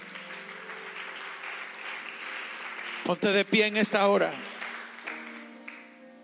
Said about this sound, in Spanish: Aleluya. Dale un aplauso al Rey.